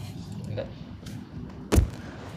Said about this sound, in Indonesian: jangan dibanting dong udah tahu udah tahu rekamannya pakai handphone handphonenya taruh di situ lu banting barang ke situ lagi